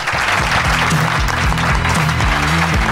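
An audience claps steadily and loudly throughout, a dense crackling wash of applause with no pauses, while low, rhythmic musical tones sound faintly underneath.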